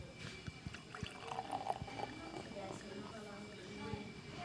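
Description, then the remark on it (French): Beer pours steadily into a glass for a few seconds, with a gurgling, splashing stream and soft fizzy crackle, fairly quiet. “tout le monde connaît euh, ce son de la bière qui coule dans un verre”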